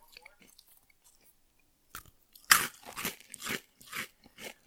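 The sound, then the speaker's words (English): A loud crunching bite into something crisp, followed by several rhythmic chews with wet, crackly crunches, after a couple of seconds of near silence. “Uh, there's a lot more molar action here. There's like mastication going on. Yeah, that like deep crunch.”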